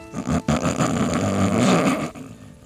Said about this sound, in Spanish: Quizás preferiría que lloraras en vez de que roncaras